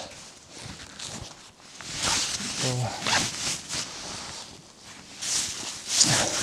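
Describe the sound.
Zipper pulls and fabric rustling as clothing is adjusted outdoors in a windless forest on a warm day, fairly loud, with scattered scuffs and brief faint voice sounds in between.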